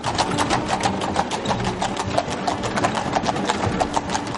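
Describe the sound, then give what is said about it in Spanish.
Steady, rhythmic clip-clop of horse hooves pulling a carriage through a village, a continuous run of evenly spaced clopping beats, moderately loud, with faint rattling of wheels underneath and no talking. “Un coche de caballos avanza por un pueblo.”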